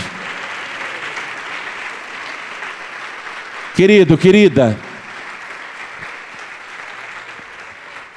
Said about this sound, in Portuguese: E vamos aplaudir mais ao nome do Senhor.